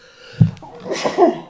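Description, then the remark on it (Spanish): A single sharp sneeze bursts out, followed by a breathy, rushing exhale and a brief vocal trailing sound as it fades. “Salud. Perdón.”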